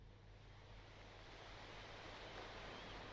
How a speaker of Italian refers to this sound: Mare di notte.